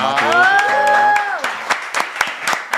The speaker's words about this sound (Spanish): Un aplauso al ingeniero.